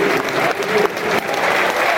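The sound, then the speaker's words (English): Steady, loud applause from a large football stadium crowd as Tyler Burey comes on as a substitute for Oliver Burke, a dense wash of clapping that holds at an even level throughout with a faint murmur of voices mixed in. “Good applause, pros of.”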